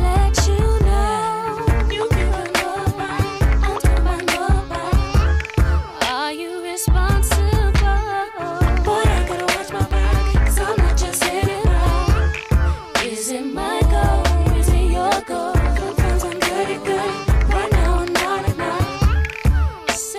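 An R&B song plays loudly and continuously, with a punchy, syncopated beat, deep bass and layered melodic vocals, briefly thinning out twice before the full groove returns.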